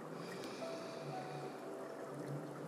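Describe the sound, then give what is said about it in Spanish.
Steady, continuous splashing of falling water, a broad rushing wash with faint tonal trickles, constant in level throughout and heard on its own without any voices. “Y exhalamos y escuchando estos sonidos de caída de agua, que el agua simboliza la limpieza, la pureza”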